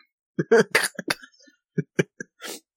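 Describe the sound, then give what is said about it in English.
A loud fit of coughing after choking on a drink of water: a quick cluster of harsh, wet coughs followed by a few sharper spaced ones and a final raspy exhale. “Oh my god, that was a big mistake to try and take a drink of water”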